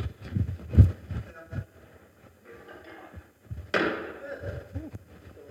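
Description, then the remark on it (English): A chair is set down on a stage with a heavy thud, followed a few seconds later by a brief scraping knock as it settles, amid faint murmur. “Can I have a chair?”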